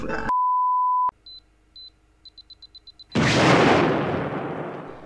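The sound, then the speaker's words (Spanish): A long steady tone, then two spaced beeps followed by a quickening run of short beeps, ending in a loud, booming explosion that roars and slowly fades. “Esto, empezaría así, como con, una artística re loca que empieza a hacer ti, así como si fuese una cuenta regresiva.”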